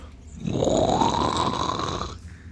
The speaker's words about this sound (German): mit der Hand irgendwo gegendrückt und dann hört ihr dieses das schleifende Geräusch von Stein auf Stein.